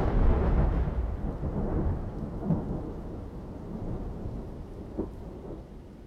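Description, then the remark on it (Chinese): A dull, heavy thunderclap rumbles low and broad, rolling on with a couple of softer cracks within it, amid a steady hiss like rain, with no voices. “天空划过一道红色的闪电，紧接着是一声沉闷的炸雷，”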